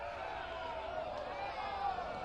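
A baseball ballpark crowd murmurs and reacts steadily to a pitch just off the plate for a ball that makes the count full, a dense wash of many voices that swells slightly near the end without breaking into a clear cheer.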